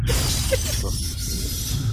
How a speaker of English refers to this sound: he broke the glass. Jump broke the glass.